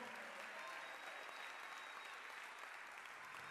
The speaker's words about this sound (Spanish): Si lo cree, déle el mejor aplauso al Señor.